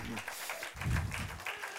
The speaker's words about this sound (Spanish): ¿Va a aplaudir o no va a aplaudir? Decídase, por favor.